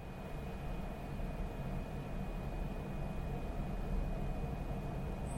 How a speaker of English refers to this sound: That is the sound of well running equipment in an industrial setting.